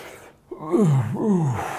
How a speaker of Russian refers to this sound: Ну и не считая никотинового глотай, который за этим стоит, да, они делают вдох-выдох так.